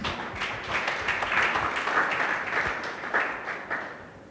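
A church audience claps together for Jesus in a dense, steady wash of applause, many overlapping hand claps sustained for several seconds before tapering off slightly at the end.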